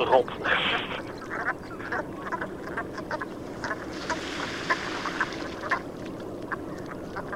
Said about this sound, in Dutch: Om dat even te staven, zullen we de Rotgans aan het woord laten. Ah, eh, met een beetje fantasie hoort je eh, rot Rob.